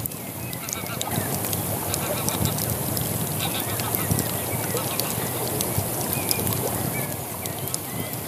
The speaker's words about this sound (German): Entspanne dich und genieße das Plätschern der Isar, das Prasseln des Feuers und den Gesang der Vögel.